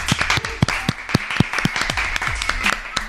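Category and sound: crowd, applause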